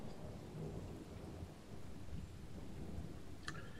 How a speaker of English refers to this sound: Rainy night.